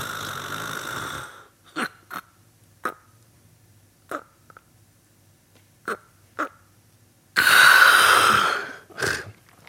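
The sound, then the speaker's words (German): A voice imitates snoring with breathing pauses: a long rasping breath, then a stretch of near silence broken by short gasping snorts, ending with another loud rough snore and a final catch, as when the throat collapses and the tongue blocks the airway. “Und dann kommt es zu Atemaussetzern, wie ich Ihnen gerade gezeigt habe”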